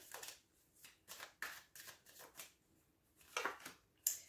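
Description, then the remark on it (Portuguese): A tarot card deck being shuffled: a series of quick, crisp riffling bursts in an irregular rhythm, fairly quiet, with no one talking. “Base do baralho temos o Cavaleiro de Paus, ok?”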